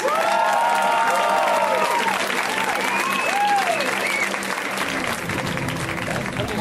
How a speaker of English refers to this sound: And so we should give him a wild round of applause. Let's hear it, ladies and gentlemen, for Mr. Hannibal Buress.